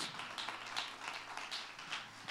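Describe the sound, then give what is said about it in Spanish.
An audience applauds for God, many hands clapping in a dense, steady patter that holds at an even level throughout, with no voices heard over it. “un fuerte aplauso a su Dios.”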